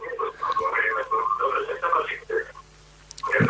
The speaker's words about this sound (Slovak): O, e, poprosím vás, stište si rádio, lebo dosť to preráža. Kým komunikujete s nami cez telefón.